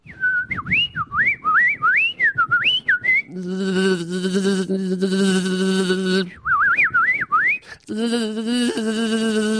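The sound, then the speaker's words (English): Warbling, rising-and-falling whistles imitate birdsong, alternating with a loud, steady buzzing drone that imitates bees, in two rounds of whistle then buzz with no talking. “Yeah, that's birds singing and bees buzzing.”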